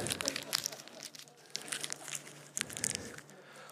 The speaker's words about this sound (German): Und so der Pastor knüllte den Schein zusammen.